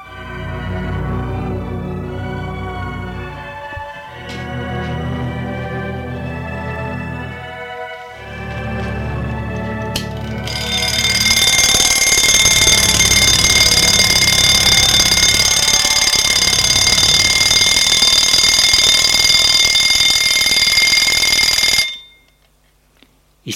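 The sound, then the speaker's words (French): Low, rhythmic pulsing tones give way to an alarm clock's loud, continuous bell ringing that clatters on steadily for about ten seconds before cutting off abruptly into silence. “réveille par un réveil, il est réveillé par un réveil le matin.”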